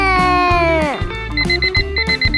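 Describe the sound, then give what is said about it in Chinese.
A long harmonic tone slides downward, then an alarm clock starts ringing: rapid, high-pitched electronic beeps repeating in a steady, insistent rhythm, fairly loud and with no talking. “听到闹钟一直响的芃芃，用力睁开眼睛。”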